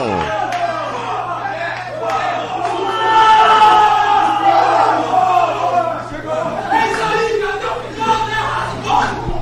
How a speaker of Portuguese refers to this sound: você tá ouvindo aqui no jornal a alegria no vestiário tricolor